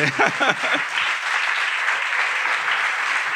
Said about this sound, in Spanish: Yo creo que te has merecido un aplauso al hijo de buscar presente.